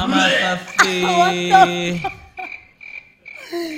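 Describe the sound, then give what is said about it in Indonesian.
A loud, croaking retch bursts out and strains for about a second, then trails off into a few shorter, quieter gagging sounds. “gila kenceng banget jackpotnya.”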